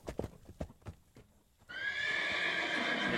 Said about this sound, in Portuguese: Ele levantou a cabeça e relinchou. Como se sabia o que estava acontecendo por acontecer. Eu sei que eu não vi como. Eu só sei que quando eu percebi, o cavalo já estava a galope e eu montado no pelo